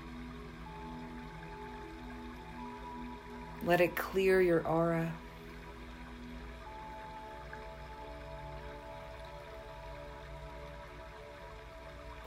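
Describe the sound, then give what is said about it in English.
Steady rushing water of a waterfall pouring down runs continuously throughout, a soft even wash of flowing sound, with a brief spoken phrase from a calm voice partway through. “feel this refreshing water pour over you.”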